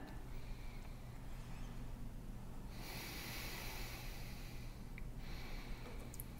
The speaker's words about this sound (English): So when we're exhaling fully and properly with every single breath, we are moving the cellular waste out of the body. When we're breathing incorrectly, show us again.